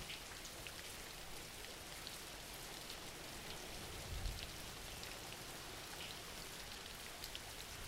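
Steady rain falling in a continuous soft hiss of dense drops, with faint patters on a surface and no voices, holding an even level throughout.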